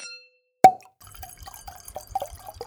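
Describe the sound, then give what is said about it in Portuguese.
A single sharp plop of liquid, followed after a brief pause by a run of soft, irregular wet gulps and trickles, like water being sipped or poured. “Eu vou pegar minha água.”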